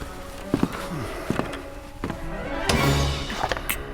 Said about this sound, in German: Ich gehe mal runter nachschauen. Ach. Wird der Junge sein? Ich habe jemand anderes gehört. Ich kenne die Schritte des Jungen.